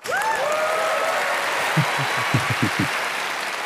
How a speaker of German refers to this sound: vielen Dank, dieser Applaus. Herrlich.